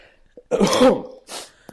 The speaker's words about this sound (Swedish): Förlåt. Jag såg hur, hur mätarna gick i taket där när jag hostade.